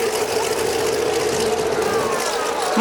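The engine of an early Sikorsky aircraft starts, giving off smoke, and runs with a steady, loud, rough drone and a constant low hum throughout, and a brief rising whine appears right at the end.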